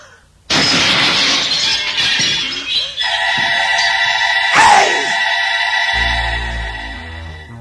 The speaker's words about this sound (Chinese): 魔镜被王后砸得个粉碎